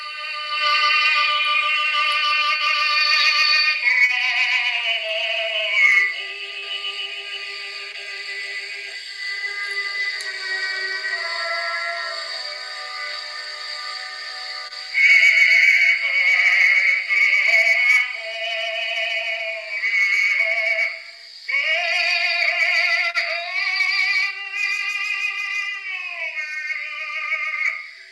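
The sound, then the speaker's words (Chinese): An old acoustic gramophone record, recorded and played back without electricity on a hand-cranked, spring-wound player, plays on its own: a thin, tinny melody with no bass, gliding harmonic notes over a constant hiss, steady in loudness throughout. “那你听听看这个声音哈， 是当时用这样的一个没有电的状态把它录下来，同时呢，在一个没有电的状态把它播放出来。”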